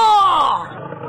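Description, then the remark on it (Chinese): A lion roars once in a forest, a loud, growling burst about a second long that slides downward in pitch before tailing off into a rough, lower rumble. “狮子的吼声让整个森林都颤抖起来。”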